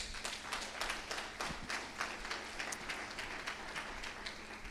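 A crowd claps steadily for several seconds in applause to God, a dense, continuous patter of many hands with no talking, moderately quiet.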